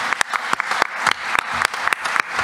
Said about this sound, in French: Tonnerre d'applaudissements pour Philippe Sueur, le maire d'Anguin, s'il vous plaît.